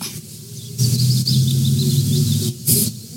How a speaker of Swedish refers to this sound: Jag kan lyssna lite på fåglarna